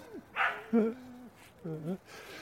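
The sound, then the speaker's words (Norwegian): Dogs bark a few times in short, uneven bursts, one drawn out into a whiny yelp. They are fairly quiet, with no talking over them. “Da får vi eh, besøk av hunder her igjen.”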